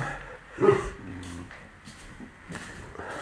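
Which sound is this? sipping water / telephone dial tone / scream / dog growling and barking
dog growling and barking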